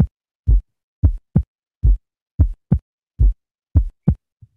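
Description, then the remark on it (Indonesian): Heartbeat of a third heart sound (S3 gallop) at normal speed, with a galloping three-part rhythm: each cycle brings two sharp thuds followed closely by a softer, low extra sound, repeating steadily, clear with no talking. “Nah, ini adalah bunyi S3.”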